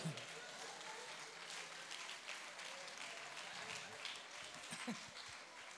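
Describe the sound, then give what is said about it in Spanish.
An audience breaks into steady, sustained applause, many hands clapping together at an even level for several seconds, with a few voices faintly mixed into the noise. “Alabo, dale un aplauso a lo que yo tomo agua.”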